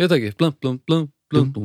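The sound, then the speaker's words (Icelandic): After a few quick spoken words, a clear voice imitates a muted guitar riff with a short run of rhythmic, plucky syllables, about five evenly spaced beats. “blum, blum, blum, blum Sko, þetta er svona muted Já, ég get pottilt spilað þetta en ég ætla ekki að finna út í núna”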